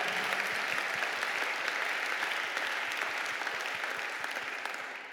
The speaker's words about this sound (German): Applaus zu Jesus.